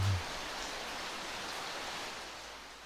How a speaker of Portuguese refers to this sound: aos poucos começamos a ver se aproximarem são umas nuvens. Começa a chover.